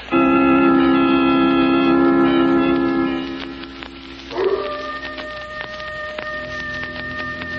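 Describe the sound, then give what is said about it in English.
A coyote howls off in the hills in long, sustained wails that rise and bend in pitch, carrying over a steady crackling hiss like light rain, with no other sound from the sleeping village. No one speaks. “Not a sound anywhere, Lamont. Except that coyote off in the hills.”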